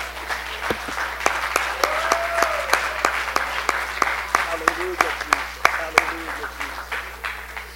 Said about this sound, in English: Now, would you clap your hands one more time unto the Lord?